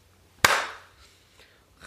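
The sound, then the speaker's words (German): A single sharp hand clap rings out alone, bright and loud, followed by a short fading decay and a few faint soft rustles afterward. “3, 2, 1, Klatsch.”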